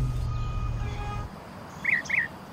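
A low, steady rumble with faint tonal hum fades out, then a bird gives two quick, bright chirps close together against a quiet background.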